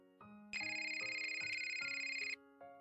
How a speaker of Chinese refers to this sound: 突然响起的电话铃声打断了左心言的遐想，把他拉回到了现实的世界。